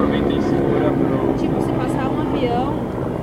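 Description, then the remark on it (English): A loud airplane roars overhead, a broad, steady rumble that fills the whole moment, with people's voices talking beneath the noise. “their airplane is like really loud, so if one comes, just wait.”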